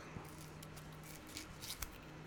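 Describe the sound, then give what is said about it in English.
Quiet crinkling and tearing of a thin foil zip strip being pulled off a bottle of Hypnotic liqueur in a few short ripping bursts, over a faint steady hum with no talking. “Time to open it up. Let's grab this zip strip.”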